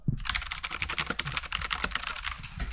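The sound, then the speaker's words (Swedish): Rapid, continuous typing on a mechanical keyboard, a dense stream of sharp clicky keystrokes, running steadily for a few seconds with no talking. “jag har mekaniskt på. Det låter exakt så här.”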